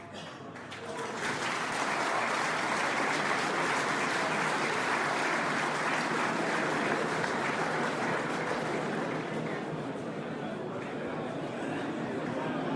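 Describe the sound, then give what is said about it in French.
Sustained applause from a large crowd, steady and dense after a brief quieter start, with a low murmur of voices running underneath the clapping throughout, in response to a speech proposing to reopen reform of the DGF local government grant. “Le, le brouhaha accompagnant les applaudissements, vous laisse entendre que je fais là une ouverture qui va être votre sujet dans les prochains mois.”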